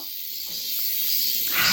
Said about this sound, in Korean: 이렇게 되면 정답은 2번이 되겠죠. 매미 울음소리를 한 번 더 들어볼게요.